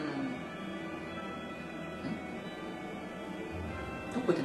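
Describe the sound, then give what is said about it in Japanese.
Muffled karaoke music bleeds through a wall from the next room of a dormitory, a steady, dull wash of sound with no clear words, fairly quiet and continuous throughout. “あ隣のカラオケだびっくりした 何の音楽かと思そう隣がこんな聞こえるんだ”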